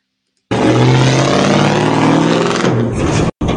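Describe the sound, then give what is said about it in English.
A prisoner truck engine revs loudly and steadily for about three seconds as it backs out of a courthouse yard, with a low droning rumble, then cuts off abruptly. No voices are heard. “They're doing a special back the truck out of the yard operation and cannot talk to us.”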